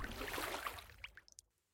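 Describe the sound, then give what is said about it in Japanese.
Water swishes and splashes as oars row a boat across the sea toward an island, a broad wash fading into a few brief drips and splashes before quiet, moderately loud. “再びオールを漕ぎ出しました。”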